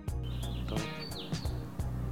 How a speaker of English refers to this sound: You ever trip off the fact that you can hear the birds chirping while you're painting? So to hear them, I feel like they're talking. You know, they're talking.